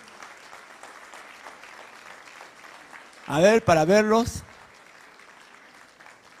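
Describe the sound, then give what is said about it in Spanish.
An IBC church audience applauds members from IBC Corregidor who stand up, with steady, dense clapping that runs the whole length, while a voice briefly speaks loudly over it partway through before the applause carries on alone. “Pónganse de pie, por favor, para darles un fuerte aplauso.”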